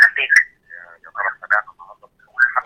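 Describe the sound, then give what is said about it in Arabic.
Thin, narrowband voice of a caller phoning in to a broadcast programme, choppy and broken into short bursts, with a delayed echo of the broadcast speech coming back through the call. “ممكن بس لو آه، بتشوف على التابلت او حاجه عشان بس في ديلي من البث فممكن تكلمني من التليفون اه واخد بالي ما انا بعدته عني”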